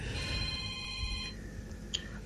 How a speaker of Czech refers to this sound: Ty, no, máme tady už, další už, telefon. No, už, už, už to vzít? nerieš, už to, už to nerieš. Najväčší problém bol v tom, že, že to volá. je to tady vyzvání stále?